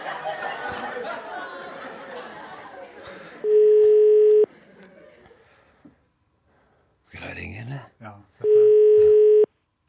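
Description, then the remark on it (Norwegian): A steady telephone tone sounds twice, each lasting about a second, loud and clear, after a stretch of talking and background chatter, with a short noisy burst between the two tones, as a random number is dialed live on air. “Og tenk også på alle de minneverdige øyeblikk, og på hva som kan skje når vi nå på direkten ringer et vilkårlig nummer.”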